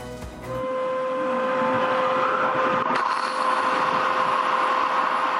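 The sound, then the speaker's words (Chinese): A loud alarm sounds with a steady, sustained mid-pitched tone that starts after a brief moment and holds unbroken, over a constant rushing, hissing noise, during a large-scale fire drill at Shirakawa-go village, Gifu Prefecture, Japan, as staff open water valves and over sixty water cannons shoot columns of water more than ten meters high. “响亮警报声中，工作人员卖力转开水阀，瞬间蹦出高达十多公尺的水柱。”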